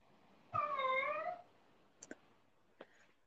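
A single drawn-out cat meow, fairly loud, lasting about a second, followed by a few faint clicks or taps in otherwise quiet surroundings.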